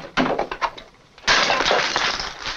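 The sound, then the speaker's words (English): A sharp crack followed by a brittle breaking sound, then a louder shattering crash as a vinyl record is smashed, with fragments scattering and rattling for over a second. Loud, no voices. “The when she smashes the record, it finishes.”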